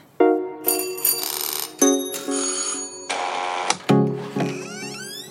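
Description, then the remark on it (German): An electronic doorbell at a house door with a huge leaf wreath in Wusterwitz plays a bright, melodic chime of about six ringing notes in quick succession, fairly loud, with no voices. “Ich stehe jetzt hier in Wusterwitz vor einer schönen Tür mit einem riesigen Kranz aus Blättern und ich klingel jetzt mal”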